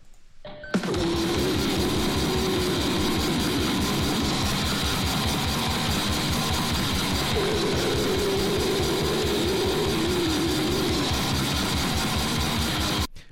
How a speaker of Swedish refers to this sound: Uh, um, det är doom death metal.